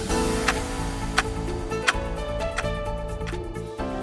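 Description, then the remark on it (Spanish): A steady clock tick-tock effect opening the Tic Tac news segment, sharp clicks spaced evenly about every seven-tenths of a second, layered over a sustained humming musical bed with no talking. “El primer Tic Tac de hoy miércoles en semana”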